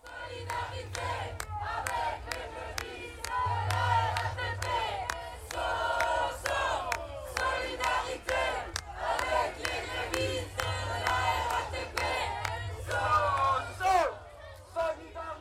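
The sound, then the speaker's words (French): A large crowd at a protest demonstration chants and shouts together, voices rising and falling in dense overlapping waves, with sharp percussive beats and a low rumble underneath, loud and sustained throughout. “Et pour terminer cette première chronique, je vous laisse sur des sons de la manifestation d'aujourd'hui.”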